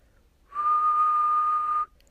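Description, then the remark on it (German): A person whistles a single steady note as a vocal warm-up exercise, held for just over a second, clear and fairly loud, starting and stopping abruptly with silence on either side. “Eine Übung fürs Warm-up kannst du mit mir zusammen jetzt machen. Und zwar pfeif doch einfach mal.”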